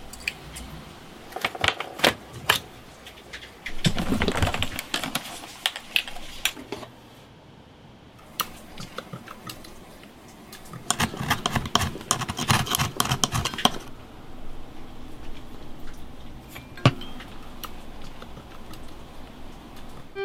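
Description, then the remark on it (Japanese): Accordion repair work: scattered sharp clicks and taps, with two longer bursts of rapid, clattering mechanical rattling, over a steady faint background hiss. No one speaks. “今朝はアコーディオン修理のいい音それではお聴きください”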